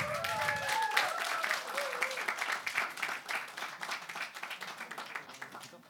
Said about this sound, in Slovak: Dajme mu jeden potlesk.